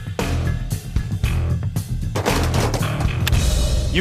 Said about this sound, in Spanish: Los británicos multiplicaban la potencia del Martini Henry con disparos simultáneos, a veces efectuados por 200 hombres a la vez.